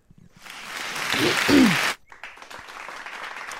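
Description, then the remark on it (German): A small audience breaks into applause, a dense wash of clapping that swells for about a second and a half, cuts off abruptly, then continues more softly with a faint voice or two underneath. “Da gab es noch einen kleinen Applaus.”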